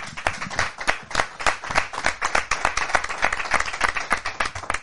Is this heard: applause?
yes